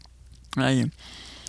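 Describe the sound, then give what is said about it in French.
A single gulp of water, a brief wet swallowing sound with a throaty, voiced edge, followed by quiet mouth noises and a small click at the end. “Je vais me prendre une petite gorgée d'eau avant.”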